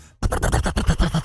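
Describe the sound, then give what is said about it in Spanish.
A voice imitates a rough, sputtering motorcycle exhaust in a Yamaha advertisement, a loud burst of rapid, uneven pops and rasps after a brief moment of quiet. “Si vos andás a esa moto que el escape suena así, de...”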